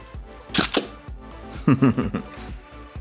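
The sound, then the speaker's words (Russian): Two crisp Hasselblad camera shutter clicks ring out, roughly a second apart, each a quick double-snap, with faint background murmur between them. “Вот, э, да, вот этот вот э, звук затвора, как бы фирменный, он э, теперь есть в камере OnePlus.”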